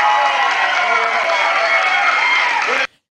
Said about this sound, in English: We're very excited to have you here. So, how about giving it a nice round of applause? Get him going there, please.